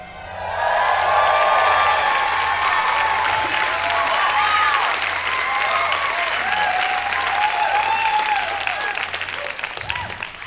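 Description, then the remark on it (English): Loud, sustained audience applause with dense clapping and some cheering voices mixed in, rising quickly at the start and holding steady for about ten seconds before thinning slightly. “Will you clap?”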